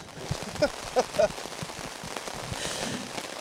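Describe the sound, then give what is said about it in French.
Heavy rain pattering steadily on surfaces and soaking the people there, a dense wash of drops with a few sharper, louder splats early on, continuous throughout. “Tu vois, le bruit, l'atmosphère, on est en train de se faire doucher ici.”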